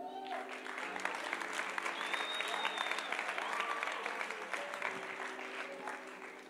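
A large crowd applauds steadily for several seconds, a dense wash of clapping that swells and holds, with faint tonal sounds and murmuring voices beneath it.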